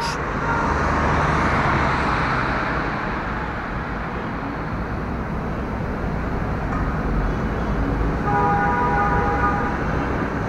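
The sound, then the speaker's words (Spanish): Dense, steady roar of busy city street traffic in Cairo, Egypt, loud, with engines rumbling continuously and a brief honking tone near the end. No voices. “Sobra decir que El Cairo es una de las ciudades más populosas del mundo, en donde el tráfico acaba convirtiéndose en la banda sonora cotidiana de todo aquel que se atreve a caminar por sus maravillosas calles.”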